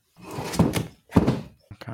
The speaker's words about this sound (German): Einen Stuhl zurechtgerückt, ne?